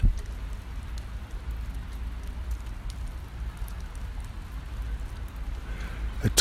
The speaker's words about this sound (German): tropft, es schneit.